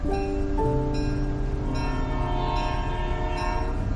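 A train horn blares in long, steady chords over the deep, constant rumble of a moving train, loud, with no voices.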